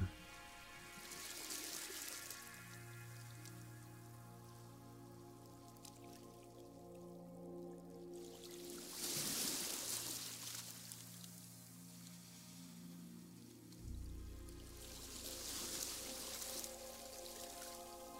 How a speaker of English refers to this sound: As the waves lap along the shore, you can see the white wash as each wave rolls calmly and then spreads onto and into the sand.